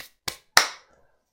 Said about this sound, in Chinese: 他拍了拍手